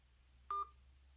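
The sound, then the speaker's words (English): A single short telephone keypad tone, pressed while entering a card's three-digit security code, a steady electronic beep lasting a fraction of a second, rings out loudly over a faint low hum with no voices. “Please enter the three-digit security code from the back of the card now, followed by the pound.”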